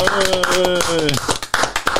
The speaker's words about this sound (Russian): Давай. Э, а мы хлопаем да, э, обычно в конце подкаста.